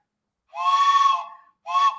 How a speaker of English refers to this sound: And I love the whistle there that you have at disposal for any time that you are